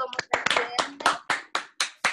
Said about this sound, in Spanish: Aplausos.